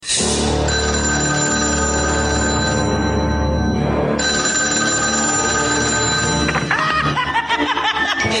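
A telephone rings loudly and continuously for several seconds, its bright electronic tone holding steady with a brief dip midway, then breaking into a busier, jumbled burst at the end.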